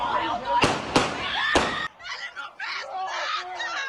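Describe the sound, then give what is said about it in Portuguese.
Three loud, sharp gunshots ring out in quick, slightly uneven succession over background chatter, followed by raised voices calling out, as a man taken from a party is shot in front of a car on a street in Contagem, Belo Horizonte metropolitan region, Brazil. “Pouco depois, ele é levado para a frente de um carro e atingido por três tiros.”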